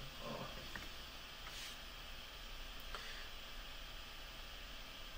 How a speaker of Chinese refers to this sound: 摄像头一直有沙沙声，不知道咋回事啊？我们再观察观察，有点电流声是吧？沙沙声。